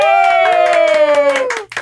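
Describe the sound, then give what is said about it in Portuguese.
Rhythmic hand claps from a small group ring out under a long, drawn-out cheering voice that slowly falls in pitch, lively, greeting the guest Rita Von Hunt on a show, ending abruptly. “É, eu, eu sempre gosto de deixar essa pausa pros aplausos é, agora eu vou me apresentar.”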